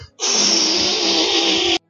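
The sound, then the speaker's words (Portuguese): Someone vocally imitates a wet, spraying liquid fart: one steady, loud, hissing-sputtering blow lasting about a second and a half, then silence. “Sabe, tipo assim, quando, quando, não tem nada, só tem líquido aí, aí vai, você vai, você vai peidar e.”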